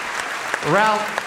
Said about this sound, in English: All right, 1st of take all, that, uh, a huge round of applause, please, for